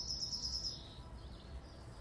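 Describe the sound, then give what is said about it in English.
Faint, high bird chirps flutter in a quick run near the start, then fade into a soft, steady outdoor hum with no one speaking. “I love the sound of the birds.”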